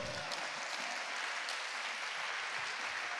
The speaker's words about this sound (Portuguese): Aplauda o Senhor.